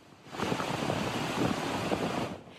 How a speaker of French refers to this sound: Les rues ont été balayées par des trompes d'eau, mais aussi par des rafales de vent qui ont atteint les 240 km/h.